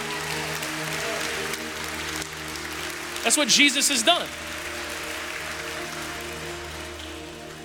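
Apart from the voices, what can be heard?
audience cheering and clapping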